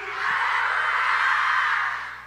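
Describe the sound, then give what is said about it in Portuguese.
A large crowd of women shouts "hallelujah" together in one loud, sustained cry, answering a call to give hallelujah; a dense wash of voices that swells and holds for a couple of seconds before easing off. “Mulheres guerreiras, dê aleluia.”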